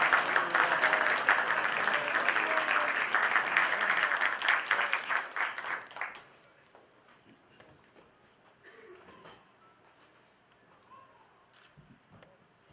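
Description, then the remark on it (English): An audience applauds loudly and steadily for about six seconds, welcoming a speaker for a talk on interfaith peacemaking, then the clapping fades out, leaving quiet with faint shuffling and a few scattered sounds. “Please give him a loud salawat and a warm, warm welcome.”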